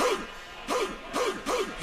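Dogs bark in a quick, rhythmic series of about four sharp woofs, evenly spaced and fairly loud, with a little background noise between them.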